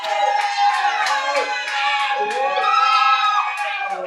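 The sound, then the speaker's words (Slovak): A live audience in a sold-out library at Nová Cvernovka during Sharp Festival bursts into sustained applause mixed with whoops and cheering voices, loud, holding steady for about four seconds with no one speaking over it. “Zdravím vypredanú knižnicu tu v Novej Cvernovke. Sharp Festival. Please make some noise!”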